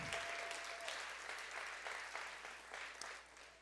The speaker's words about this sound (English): Can you give them a big clap as they take the stage? Come on, these are great men eternity men. Come on, give them a big clap as they come up and take the stage this morning.